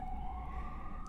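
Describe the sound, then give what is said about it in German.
An emergency vehicle siren wails steadily in the background in New York, a sustained rising tone over low traffic rumble, moderately loud and continuous for the whole moment with no talking. “Man hört auch schon die Sirene im Hintergrund, also.”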